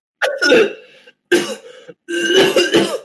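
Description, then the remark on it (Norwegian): Three harsh, wet coughing bursts in quick succession, loud, each a rough explosive hack with a brief pause between, the last one longer and more drawn out, as a man coughs shiny mucus onto another person. “hoster … tjener på meg, alle sammen. Jeg er dekket i slim.”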